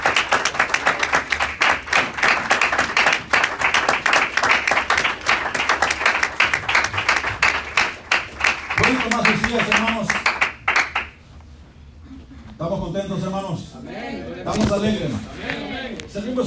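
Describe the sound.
A church audience breaks into loud, sustained applause for the Lord, dense rapid claps that fade out after about eleven seconds as a man's voice begins speaking over the last of it.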